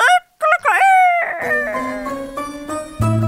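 A rooster crows loudly and close by, one drawn-out cock-a-doodle-doo that rises, holds and trails off, with a steady tonal hum lingering underneath toward the end.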